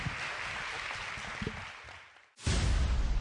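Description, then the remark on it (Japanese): An audience at the Japan Move Up special open talk event applauds to send off the guests, with a dense, crackling wash of clapping that dips briefly, then swells back louder and fuller for the final second. “皆さん大きな拍手でお送りください。”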